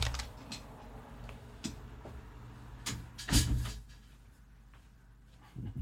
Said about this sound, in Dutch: Ik ga even een raam dichtmaken.